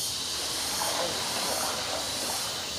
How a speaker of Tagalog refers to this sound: Teka, medyo maingay. Ano yun? Kulisap ba yun? Teka lang ha. Ah. Kuya, what's that? Kulisap po yun? Kulisap ba yung maingay?